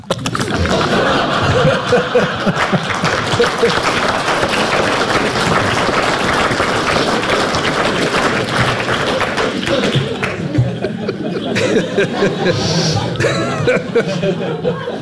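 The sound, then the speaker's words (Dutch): A heartbeat with a leaking heart valve, steady rhythmic thumps smeared by a loud, rushing whoosh, continuous, thinning out slightly toward the end. “je hoort nu mijn hartslag.”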